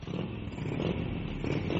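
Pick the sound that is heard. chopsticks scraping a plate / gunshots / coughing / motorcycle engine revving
motorcycle engine revving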